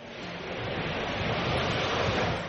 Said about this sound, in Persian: اما شاید این صدا خیلی هم با هم فرق نکنن راستش داشتم فکر میکردم علیرغم اینکه ساحل خزر از شرق تا غرب گوناگونی زیادی داره اما انگار صدای دریا همه جاش یه شکله